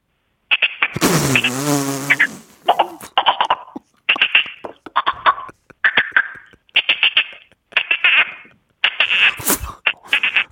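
A person imitates a frog with a rapid series of raspy, buzzing croaks in short rhythmic bursts, opening with a longer voiced warble, and no other talk.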